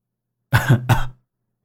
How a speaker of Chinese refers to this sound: 韩忠诚干咳了一声，周围的兵将看见是韩忠诚，赶紧散开去训练了。